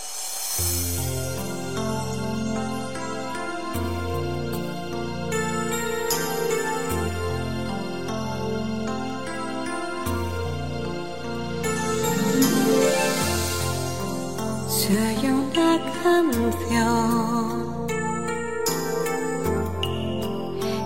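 A pop ballad plays steadily and fairly loud, with lush sustained chords, a deep bass line and bright tinkling chime-like notes sparkling over the top, with no talking.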